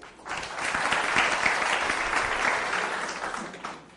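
An audience bursts into applause, a dense crackle of many clapping hands that swells quickly, holds steady for a few seconds, then tapers off. No one speaks over it.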